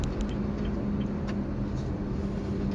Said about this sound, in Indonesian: ini gede banget truk